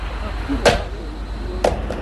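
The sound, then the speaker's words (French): A mobile phone smacks onto pavement with a sharp clack, then clatters once more about a second later, two hard impacts over a steady outdoor background hum. “Tiens, un portable qui vient de tomber sur le trottoir.”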